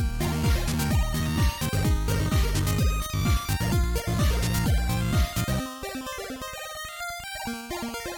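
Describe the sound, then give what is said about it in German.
Loud, full-bodied music with a steady pounding beat and layered instruments, which drops into a softer, sparser passage of sustained melodic notes toward the end. No one speaks. “ich gehe davon aus, dass Ford da weiterhört, weil die Musik ist gut”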